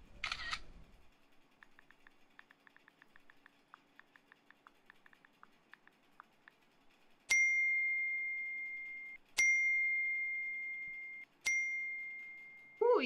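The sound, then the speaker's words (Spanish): Three bright phone notification chimes ring out about two seconds apart, each sustaining and fading, as reactions arrive to a social media post, preceded by a run of soft, rapid camera-shutter-like clicks as photos are taken for the post. “¿Qué pasó que te llegan tantas notificaciones?”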